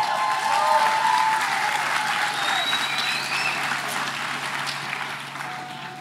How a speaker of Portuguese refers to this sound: Você pode aplaudir.